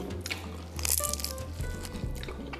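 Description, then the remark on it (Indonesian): Someone bites into crispy fried tempeh: a loud, sharp crunch followed by a steady run of smaller crackling chews, with no one talking. “Makan tempe goreng.”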